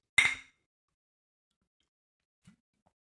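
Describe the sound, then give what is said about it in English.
Glasses of Franziskaner Weiss beer clink together once in a toast, a bright ringing chime that fades quickly, followed by near silence and a faint soft knock later. “So, with that in mind, cheers. Cheers.”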